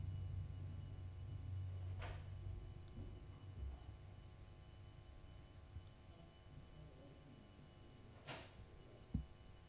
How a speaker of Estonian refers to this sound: kas ukse taga või keegi kuskil kobistas midagi